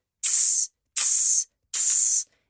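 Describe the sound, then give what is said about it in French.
A voice beatboxing, imitating the hi-hat (Charleston) cymbals of a drum kit with the mouth, makes three evenly spaced, sustained hissing 'tsss' bursts, each about half a second long, bright and sharp, with brief silences between them and no other sounds. “Donc, par exemple, dans une batterie, il y a des Charleston, donc en anglais, les hi-hats. Et euh, ça, ça fait ce son-là.”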